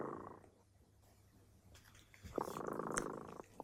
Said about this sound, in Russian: А наш кот Дремота, слышите, запел свою песню. Это значит, что пора засыпать.